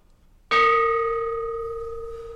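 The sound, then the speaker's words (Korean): A single flat, non-round bronze bell-chime of a Korean pyeonjong set, a hwangjong bell, is struck once on its narrow side, ringing out with a sharp attack and a clear metallic tone that slowly fades, heard alone. “또 이렇게 좁은 면 쪽을 치면 그 소리의 성향이 달라지옵니다.”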